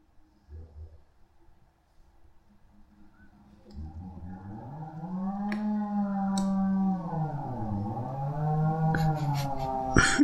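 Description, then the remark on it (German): A motor saw engine drones steadily after a quiet start, its buzzing pitch sagging and climbing again as the throttle shifts, loud and with no voices. “ich möchte auch so eine Säge.”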